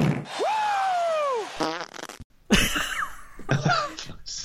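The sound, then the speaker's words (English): A long, squeaky fart that slowly drops in pitch, followed by several shorter, sputtering fart bursts. Loud, with no one talking. “I'm sorry, farts are funny, and that took me ages to do.”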